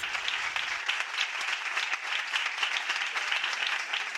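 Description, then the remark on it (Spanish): Steady applause from a crowd for students, a dense, continuous patter of many hands clapping at an even level for several seconds with no voices standing out. “Aplaudimos a aquellos estudiantes”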